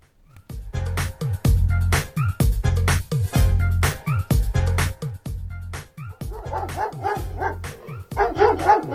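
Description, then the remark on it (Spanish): Several dogs bark loudly and repeatedly in a rapid, overlapping chorus, with sharper higher-pitched yips joining near the end. The barking is continuous throughout, with no talking. “El gobierno le puso número a uno de sus desvelos, el combate a la sobrepoblación de perros.”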